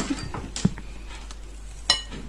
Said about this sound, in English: And I dropped the microphone, sorry.